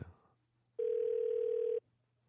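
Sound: telephone dial tone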